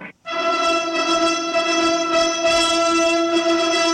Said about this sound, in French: Et c'est reparti pour la marche hongroise de, de Berlioz, c'est la grande vadrouille, Louis de Funès.